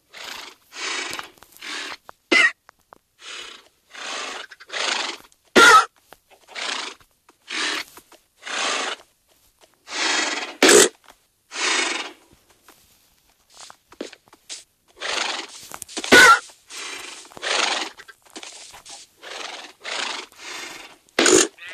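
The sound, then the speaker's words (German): Horses in a video game neigh and snort over and over, dozens of short, loud bursts in quick uneven succession, with a few sharp clicks between them and no talking. “So, jetzt noch ein paar Pferdchen.”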